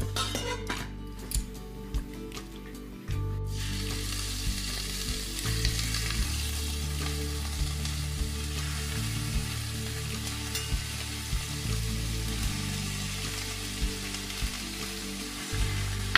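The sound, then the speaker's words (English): Chicken shallow frying in a pan as the first step of making chicken adobo, a Filipino dish: a steady crackling sizzle that swells after the first few seconds and holds, broken by occasional clinks and scrapes of a utensil against the pan. “What I do is I just shallow fry the chicken first.”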